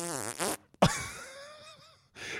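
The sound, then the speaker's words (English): A drawn-out, wavering fart sound lasts over a second, loud, with brief noisy bursts just before and after it and no talking. “And then you let out a five second long audible fart.”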